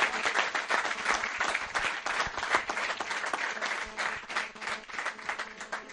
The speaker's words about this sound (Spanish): Un aplauso para Can sí señor, ahí estamos.